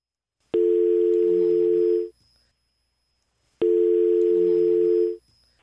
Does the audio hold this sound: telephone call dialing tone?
yes